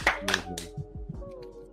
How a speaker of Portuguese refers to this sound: palmas, velho. Com certeza. Palmas, palmas.